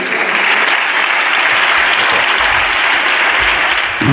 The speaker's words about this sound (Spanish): muy aplaudida esta frase del presidente.